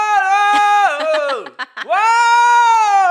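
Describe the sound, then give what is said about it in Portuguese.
A person imitates a man screaming in his sleep at night: one loud, sustained, intense cry that dips and breaks briefly midway before rising again, with no other sounds. “E à noite, às vezes ele tá dormindo, ele começa a gritar.”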